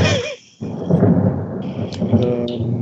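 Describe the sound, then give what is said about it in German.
A deep, rolling rumble of thunder swells after a brief lull and keeps grumbling broadly, fairly loud, with a faint voice briefly audible at the start. “Boah, das Schön, dass es jetzt donnert bei dem symbolisch.”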